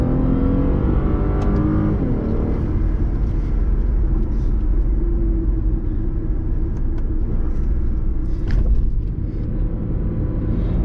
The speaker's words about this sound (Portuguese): Olha só como ele acelera. Então, ele tem uma pegada bem esportiva. Sem dúvida nenhuma, a, a, a troca da marcha, a redução de marcha é, é de um carro de categoria superior, sem dúvida. Olha só.